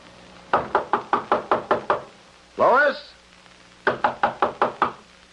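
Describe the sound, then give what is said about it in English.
Two bursts of rapid knocking on an apartment door, about seven sharp raps each, separated by a man briefly calling out to be let in; the knocks are fairly loud. “Come on, open the door.”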